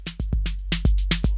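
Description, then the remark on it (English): A music track with punchy drum hits in a quick, steady rhythm over a low bass line, loud, with no voices. “What you're hearing here is a little bit of music by my buddy ….”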